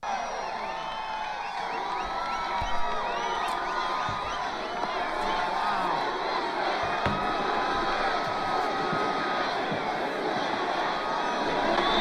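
A large crowd at a presidential rally in Erie, Pennsylvania cheers and shouts continuously, a dense, steady roar of many voices with scattered whoops and whistles rising above it, loud throughout without pause.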